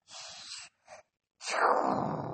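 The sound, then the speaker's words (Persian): A voice imitates a storm of rain, thunder and lightning: a breathy, hissing rush like falling rain, a brief second puff, then a louder, rougher roaring blast standing in for thunder, alone. “بارون چجوری میباره بعد و برق چجوری صدا میده اوه خیلی رد و برق محکمیه شما بلد این صدای رد و برق و بارون در بیارین”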